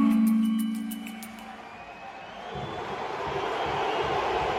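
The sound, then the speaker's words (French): A large stadium crowd of Paris Saint-Germain supporters at the Parc roars and cheers with joy, the broad wash of noise swelling after a couple of seconds and holding steady. A brief tonal, horn-like sound comes at the start, with no one speaking. “Et donc, le, parc est fou de bonheur.”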